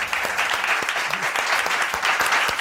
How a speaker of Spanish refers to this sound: Un aplauso muy fuerte para David Noriega, Alberto Vandenbruque y Alauda Ruiz Gracias por venir